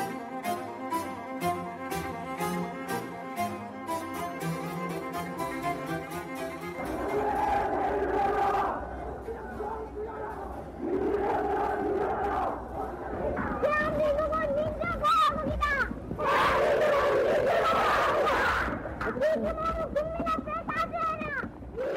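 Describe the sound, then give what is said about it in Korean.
After a few seconds of tonal music, a large, dense crowd of young student protesters, from university down to elementary school pupils, breaks into loud, rising shouts and chants for academic freedom and democracy during Korea's April Revolution, waves of many voices swelling and falling. “학원의 자유와 민주주의를 외치는 앳된 함성의 주인공들은 누굴까?”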